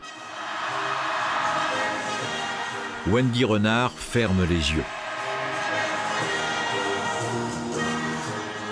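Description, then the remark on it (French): A stadium crowd of more than 40,000 people sings the French national anthem, La Marseillaise, together in a steady, swelling wash of massed voices, and a single voice speaks briefly over it partway through. “Pendant que l'hymne résonne,”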